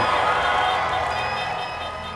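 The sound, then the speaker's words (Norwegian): A large crowd of dancing voters cheers and roars in front of a large blue stage full of American flags at Joe Biden's election rally, in a steady, dense wash of noise that stays loud for the whole stretch, with no clear individual voices standing out. “Og noe av det aller første han lova, på en stor, blå scene full av amerikanske flagg og foran dansende, jublende velgere, var å forene folket.”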